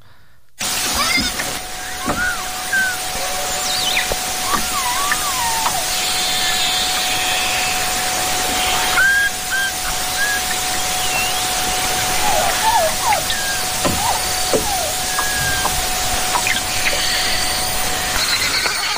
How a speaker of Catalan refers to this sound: Arriba l'hora d'escoltar el cant de la beluga, coneguda per la seva harmonia, la seva melodia i el seu color blanc distintiu.